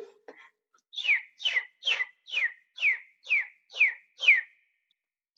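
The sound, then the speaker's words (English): A person whistles an imitation of a bird's tweet, eight quick descending chirps in a steady rhythm, clear, with a brief soft noise just before. “A round of applause for …'s tweeting.”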